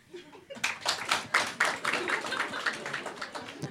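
An audience breaks into applause, dense overlapping claps starting abruptly and holding steady at a fairly loud level for a few seconds.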